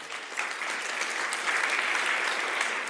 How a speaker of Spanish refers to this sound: Den un fuerte aplauso al Rey.